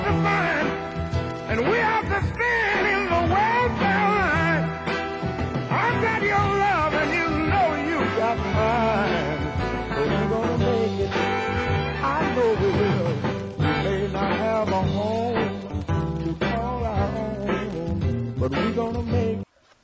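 A soul song plays at full volume, a lead singer's voice riding over a steady band with bass and rhythm, continuing without pause for about twenty seconds before cutting off abruptly.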